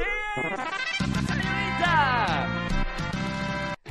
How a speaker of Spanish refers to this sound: ¿puedes tocar el claxon tres veces para saber y comprobar que vas en tu auto?